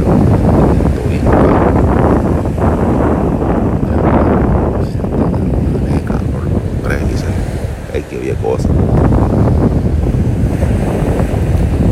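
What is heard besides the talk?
ocean waves and wind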